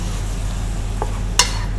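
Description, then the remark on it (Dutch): Leek frying in a pan gives a steady, even sizzle throughout, broken by a soft stirring scrape and then one sharper clack of a utensil against the pan. No one speaks. “Ik bak de prei even.”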